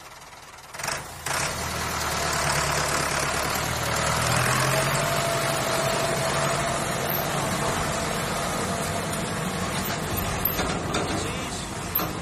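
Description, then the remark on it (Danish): A heavy tractor engine rumbles steadily, a low idling drone with a faint rattling texture that holds for several seconds after a brief start, with no voices over it. “Og oh, der er en traktor.”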